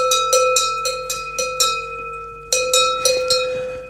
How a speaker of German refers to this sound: Auf der Alm trägt sie eben die, die kleine Almschelle, die hat eher so einen Klang, die ist so ein bisschen höher.